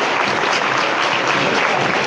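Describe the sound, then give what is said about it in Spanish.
The people of Jaén applaud as Holy Week begins. The dense clapping from many hands fills the space steadily at a constant, fairly loud level without breaks. “Bueno, pues con estos tres golpes, con el chirriar de la puerta y con el aplauso del pueblo de Jaén, se da comienzo a la Semana Santa.”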